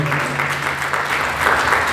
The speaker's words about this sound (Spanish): Den el aplauso a Jesús, por favor.